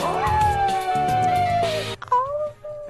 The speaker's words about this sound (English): He made but he made that that howl a lot. That was pretty much one of his only uh, sounds yeah. that he made.